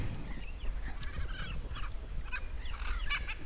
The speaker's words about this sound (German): Jetzt kommen die Aras geflogen.